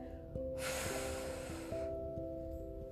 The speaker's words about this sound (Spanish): cada vez que quieras liberar, soltar algún pensamiento, puedes realizar una respiración bien profunda y soplar,